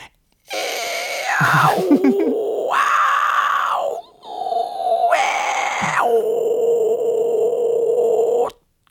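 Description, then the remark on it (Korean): A voice imitates a dial-up modem connecting over a telephone line to PC communication services: sustained, nasal electronic-sounding tones with shifting pitches and screechy bursts, loud, running about eight seconds with a brief pause midway. “연결될 연결될 때 그 나는 소리.”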